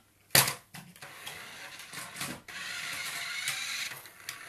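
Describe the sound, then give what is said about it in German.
A battery compartment cover is snapped onto a small plastic Ferrari toy car with the batteries inside: a sharp click up front, then scraping, fiddling plastic handling noises and a few softer clicks, fairly quiet with no talking. “Also würde ich sagen, als nächstes kommt das Fach hier immer drauf.”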